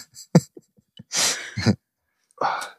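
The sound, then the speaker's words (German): A person sputters and coughs in a few harsh, breathy bursts, with a sharp gasp and short pauses between them, after drinking very fizzy sparkling water. “Haben sehr sprudeliges Sprudelwasser hier stehen.”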